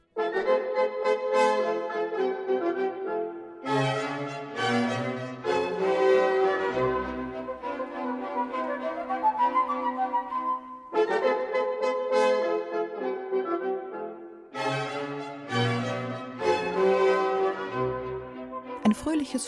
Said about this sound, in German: Ein solches Thema hat übrigens einen Spezialnamen. Man nennt es Ritornell. Und das hört sich so an.